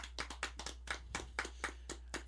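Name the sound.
applause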